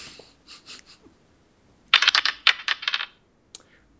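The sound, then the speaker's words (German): Dice shaken softly, then tossed onto a hard table: a quick burst of sharp clattering bounces lasting about a second, ending in a single faint tap. Fairly loud, no talking. “Also würfeln wir.”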